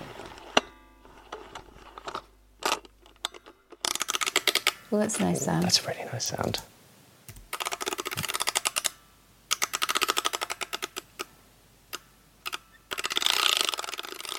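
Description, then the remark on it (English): Dry mechanical clicking from a small music box mechanism as paper feeds through, coming in uneven rapid bursts with short pauses, while a person briefly speaks over it. “You get a nice click actually when the paper comes through.”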